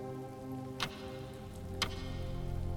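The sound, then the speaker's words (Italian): A giant clock in front of an armoured door in a white room ticks slowly, two distinct sharp ticks about a second apart, over a steady low hum with no one speaking. “C'era un orologio gigantesco, proprio davanti a un portone blindato.”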